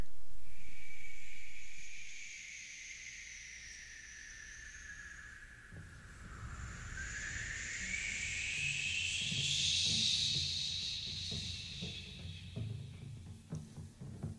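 A Latin American jazz recording: long, wavering high wind tones slide and swell over a low, rumbling rhythmic bed that grows busier partway through, with no voices.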